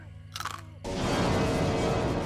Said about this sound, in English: as she started from the sound of what could have been bones crunching in the kitchen.